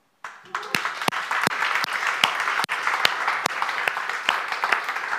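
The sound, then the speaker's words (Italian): A crowd breaks into steady applause for God that starts abruptly and holds at a fairly loud, even level, with a few sharper individual claps standing out. “Un applauso a Dio.”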